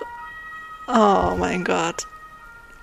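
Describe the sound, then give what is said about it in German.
A fire engine siren drones steadily in the background, heard from inside an apartment, while a person briefly exclaims over it midway through. “Und ich hoffe, du hörst die Feuerwehr im Hintergrund nicht.”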